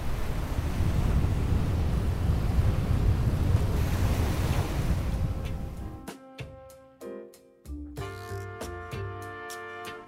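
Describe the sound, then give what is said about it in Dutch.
North Sea waves break on the shore in a steady, loud wash of surf, with wind rushing through it. After about six seconds the surf fades as music with sustained tones takes over. “Dank Noordzee.”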